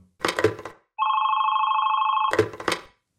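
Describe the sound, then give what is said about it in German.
A telephone bell rings loudly: a rattling clang, then a steady sustained electronic-sounding tone, then another rattling burst of the bell. No one speaks. “und ständig klingelt das Telefon.”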